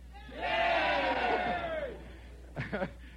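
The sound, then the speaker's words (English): A group of people at the Limelight in Greenwich Village lets out a loud, sustained shout of cheering for about a second and a half in response to a call, then fades, followed by a few short vocal bursts. “You know, uh, since we since we are here now at the limelight, are we all at the limelight, gang? Let's hear it.”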